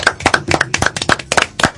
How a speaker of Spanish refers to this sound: Señores, feliz 30 días de concierto sentido. Sí, ¿verdad? Un aplauso para nosotros mismos.